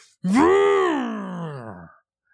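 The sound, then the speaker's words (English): A single voice imitates a loud car engine with a sustained, buzzy vocal drone that rises slightly, then sinks and fades over under two seconds, fairly loud, with no other sounds. “like this loud engine is so loud where if you're having a conversation with someone, you need to stop having the conversation until this car leaves.”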